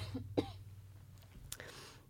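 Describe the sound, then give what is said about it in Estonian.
A short cough bursts out, followed a moment later by a second rougher cough or throat-clearing, against a low steady hum with no talking. “ma võtan, hakkan kohe köhima.”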